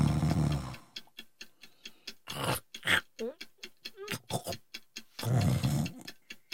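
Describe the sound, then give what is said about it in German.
A person snores loudly in two long, rasping breaths, one at the start and one near the end, with a steady clock ticking in between and a few brief vocal noises. “Halt ihm mal die Nase zu, dann hat die liebe Säge Ruhe.”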